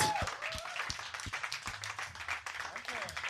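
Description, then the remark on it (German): A crowd applauds steadily, dense overlapping claps filling the whole stretch at a fairly even level, with a few scattered voices and shouts mixed into the clapping, as an audience welcomes a founding member of a band. “einen großen, den größten Applaus. Den größten ever. Applaus, den es überhaupt gibt.”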